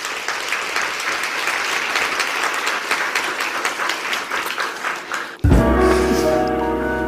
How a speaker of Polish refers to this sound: więc myślę, że możemy dla niej ogromnymi, zrobić ogromne oklaski.